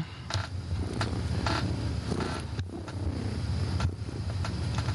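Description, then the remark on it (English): Fire trucks rumble past outside near a hospital, a steady low engine drone filling the background with a few brief clicks and thumps, moderately loud and continuous, with no one speaking. “And there's fire trucks and stuff going on. I hate living near a hospital, but whatever.”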